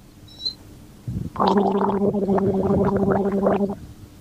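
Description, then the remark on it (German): A short sip from a bottle, then loud gargling with water, a bubbly rattling sustained for a little over two seconds with a steady low hum underneath. No talking. “einen Schluck aus seiner Flasche nimmt und einfach mal gurgelt, also laut gurgelt.”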